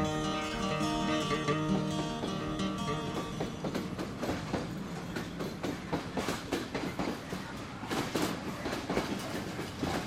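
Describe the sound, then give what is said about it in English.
A train rolls by on the rails, a sustained whistle-like tone fading into a loud, steady clickety-clack of wheels over track joints, repeating in a quick rhythm. “That's the way she sounded when she went out of here.”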